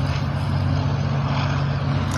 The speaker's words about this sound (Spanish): Ahí se escucha, está pasando justo el tren.